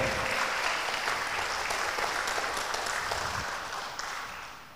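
Sustained audience applause for a studio artist taking the stage at a discussion event, a dense crackle of many hands clapping at steady volume that tapers slightly toward the end, with no voices over it.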